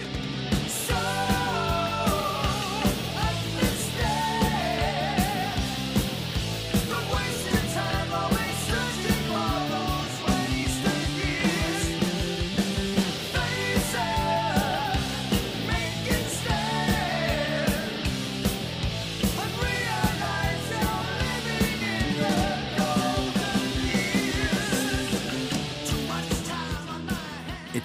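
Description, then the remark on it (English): A heavy metal chorus plays loud and continuous, with distorted guitars, pounding drums and soaring sung vocals holding a steady, driving intensity for about half a minute. “amazing songs, but they don't have this chorus.”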